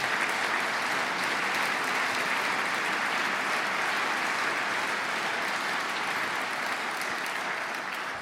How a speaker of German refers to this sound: Applaus